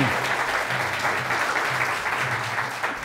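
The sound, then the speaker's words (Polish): A crowd claps steadily and warmly for the players, a dense wash of many hands applauding at once, sustained at an even level throughout with no voices standing out. “Dzień dobry, wielkie brawa dla nich.”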